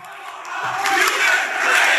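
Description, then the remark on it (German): A large crowd at a rally shouts together in a loud, sustained roar, voices blending into a dense wall of yelling that swells slightly over a couple of seconds. “war hier, äh, wo die rumgebrüllt haben.”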